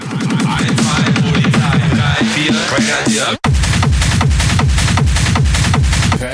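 A loud, driving hard techno track with a pounding four-on-the-floor kick, stabbing synth riffs and dense percussion, briefly cutting out for a split second before slamming back in.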